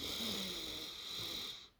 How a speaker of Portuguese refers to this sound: Eu vou respirar um pouquinho aqui.